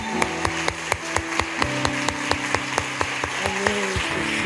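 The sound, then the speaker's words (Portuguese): At a church service, an audience claps together for the name of Jesus in a steady, even rhythm, about four claps a second, over sustained keyboard chords. No one speaks. “A gente aplaude o nome de Jesus.”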